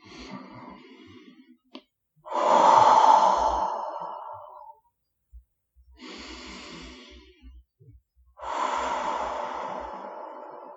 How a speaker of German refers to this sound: Konzentriere dich nochmal auf deinen Atem. Nimm nochmal drei tiefe Atemzüge durch die Nase ein, durch den Mund aus.